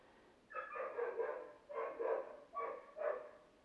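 A dog barks in four drawn-out, yelping bursts with short pauses between them, moderately loud, with no one talking.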